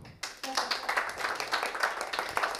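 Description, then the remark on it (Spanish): A small audience bursts into applause after a brief pause, many hands clapping in a dense, steady patter that holds for a couple of seconds, moderately loud. “Les pido un aplauso, por favor.”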